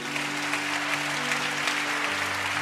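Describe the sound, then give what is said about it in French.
An audience claps steadily in a dense, sustained burst of applause acclaiming Jesus, with a low sustained organ or keyboard tone holding underneath throughout. “Quelqu'un acclame encore Jésus.”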